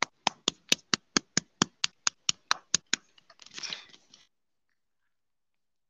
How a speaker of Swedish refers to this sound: Applåd.